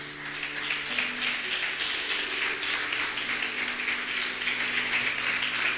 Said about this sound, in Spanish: le dar un aplauso grande al Señor.